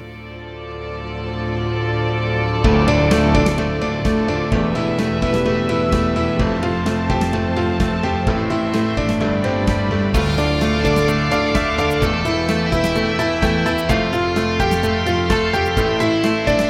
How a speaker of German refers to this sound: Genau, ich drücke jetzt mal aufs Outro.